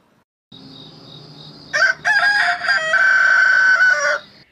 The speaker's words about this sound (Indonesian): suara ayam berkokok